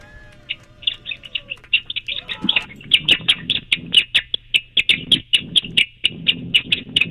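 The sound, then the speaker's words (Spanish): A caller on line two of a radio show imitates a baby pigeon's call: a long, rapid series of high, thin cheeps in a steady rhythm, with soft breathy bursts underneath and no speech. “la línea número dos, que hace como un pichoncito.”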